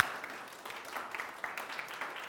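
audience clapping

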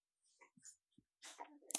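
dog snorting

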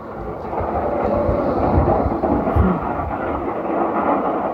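thunderstorm with rolling thunder

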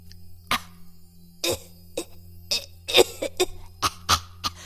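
cough

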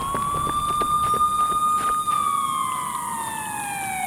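police sirens approaching

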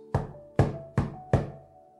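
knocking on a door

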